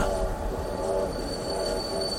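A train rumbles steadily at a railway station in western Moravia in summer 1918, its wheels giving off a thin, sustained high-pitched metallic squeal over the low, continuous clatter. No one speaks.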